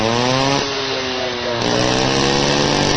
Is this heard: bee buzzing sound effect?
no